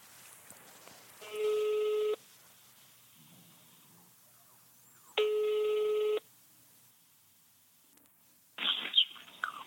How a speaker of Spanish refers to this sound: Llámale y, y, nada más pone el, el teléfono al lado del micrófono. Ponlo en speaker y ponlo al lado del, micrófono. Sí. Marcando.